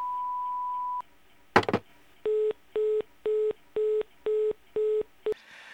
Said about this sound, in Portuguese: posso atender agora, mas deixe o seu recado depois do bip.